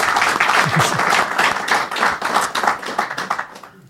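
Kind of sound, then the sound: crowd, audience applause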